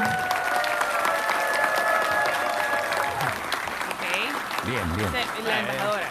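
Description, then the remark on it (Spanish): A crowd applauds steadily for El Salvador's ambassador to the United States, Milena Mayorga, at an evening official welcome for a delegation from El Salvador. Dense clapping fills the whole stretch with a few cheers mixed in early on; toward the end a man's voice begins speaking over the continuing applause. “Es un honor para mí estar presente esta noche y dar la bienvenida oficial a esta delegación que ha venido de El Salvador, comenzando con nuestra honorable embajadora de El Salvador en Estados Unidos, Milena Mayorga, para quien pido un gran aplauso.”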